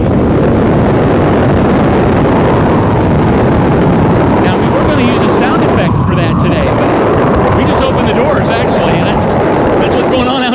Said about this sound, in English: outside right now. that bomb cyclone thing, right? These gusts of wind.